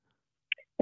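A short, abrupt sneeze: a couple of faint catches after a silence, then a sudden loud burst cut off at the end.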